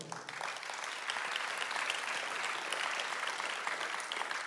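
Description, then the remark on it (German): An audience breaks into sustained applause for God in heaven, a dense, steady wash of many hands clapping at once that holds at an even, fairly loud level for several seconds with no talking. “Das alleine ist ein Applaus wert für unseren Gott im Himmel.”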